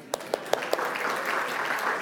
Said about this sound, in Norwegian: Applaus.